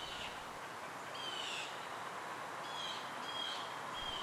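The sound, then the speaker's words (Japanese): Small birds chirp faintly in a forest, a few short high calls scattered over a steady hiss of wind and rustling leaves, with no voices. “何を話してるのかなあれ小鳥さんもいるね家族かなお友達同士かな”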